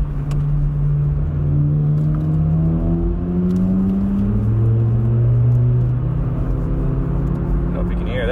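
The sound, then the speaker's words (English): Loud, continuous road noise with droning engine tones that rise and fall in pitch as three cars speed past on the right side on Route 87, a highway, a steady rumble throughout. “a couple of speed demons, three cars all speeding by me on the, the right side, and uh, I think they're all together.”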